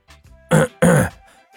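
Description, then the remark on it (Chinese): Li Shunxi, on a phone call, gives a choking cough followed by a throat clearing: two short, harsh, voiced bursts in quick succession, loud against near silence, with faint breathy sounds before and after. “李顺喜传来一声呛着的声音，清了清嗓子说道”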